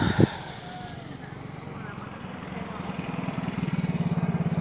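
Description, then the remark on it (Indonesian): Many motorcycles pass by outside, a low engine rumble that swells and grows steadily louder and more throbbing toward the end, with indistinct voices faintly underneath. “kayaknya udah siang nih oh, gila banyak banyak motor lah”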